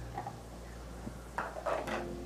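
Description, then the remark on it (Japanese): A large amount of clean dishes being lifted out of a dishwasher and set down, with a few soft clinks and clatters in the second half over a low, steady background hum. Fairly quiet, with no talking. “今ちょっとね食洗機があるんですけど食洗機便利ですよね是非ねあのー、利用してほしいなと思うですけど今食洗機からね大量の食器洗い終わった食器を、ね、出そうとしてますね”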